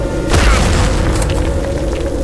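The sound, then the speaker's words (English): A heavy impact boom of a body thrown into a tombstone by a cannon blow in a snowy graveyard strikes suddenly near the start, loud and deep, then trails off into a sustained low rumble with no voices. “He swung the cannon to hit me. The blow sent me flying all the way back into a tombstone.”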